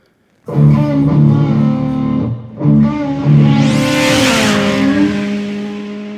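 A motorcycle with an oil leak, being ridden to a repair workshop, roars to life and revs loudly, dipping briefly twice before climbing again into a sustained, rising growl with no voices present.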